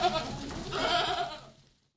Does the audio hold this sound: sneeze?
no